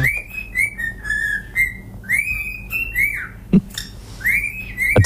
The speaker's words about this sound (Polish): uwaga, papuszki, papuszki, papuszki, które umieją dobrą nutę.